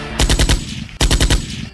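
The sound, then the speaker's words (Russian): Two short bursts of rapid gunfire, each a quick string of about five loud, sharp shots, separated by a brief pause. No one speaks. “Практически недели не проходило без новостей о стрельбе в крупного бизнесмена, политика или авторитета.”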